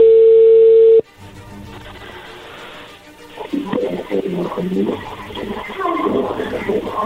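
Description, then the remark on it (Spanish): A loud, steady telephone dial tone hums for about a second, then cuts off abruptly, leaving faint line hiss before a voice starts talking over the phone line. “Perfecto, vamos a marcarle en este momento a ver qué sucede.”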